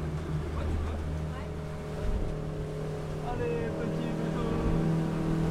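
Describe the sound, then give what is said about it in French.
A boat motors steadily across open water from Pornic toward Noirmoutier, its engine droning low and constant beneath rushing water and wind, with faint voices murmuring in the background. “vous entendez …, capitaine du bateau, …, …, …, … et moi, en apprenti matelot”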